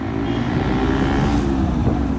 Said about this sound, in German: Zu vielen Gesprächsterminen fährt mich ein Vertrauensmensch der queeren Gesprächspartner, ein Motorradfahrer mit einem Boda Boda, dem in Kampala üblichen Motorradtaxi.